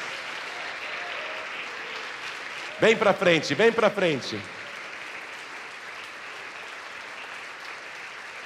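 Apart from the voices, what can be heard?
audience applauding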